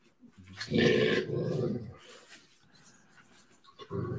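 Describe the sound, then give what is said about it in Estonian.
A mother dog growls at her puppies to calm them: a loud, rough rumble lasting over a second, then softer grumbling, and a short growl returns at the end. No one speaks. “no kui, kui siin heli ei ole kuulda ja nii edasi, siis ema siis lõriseb ja haugub hetkel.”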